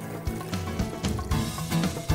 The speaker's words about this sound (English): I'm gonna add some water.